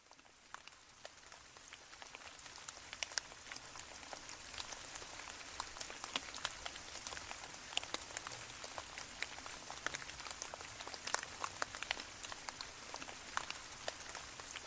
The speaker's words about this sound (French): On rentre s'abriter assez rapidement parce qu'on se fait surprendre par une averse.